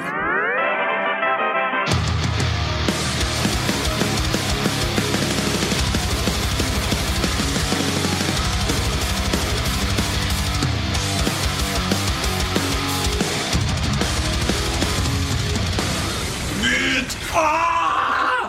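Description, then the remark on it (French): A loud, dense radio-show jingle kicks in after a brief tonal intro, driven by a pounding steady beat with shouted, groaning vocals, and closes with a short sung vocal flourish. “Bah, c'est un jingle qui dit beat. Ouais, et qui fait ah”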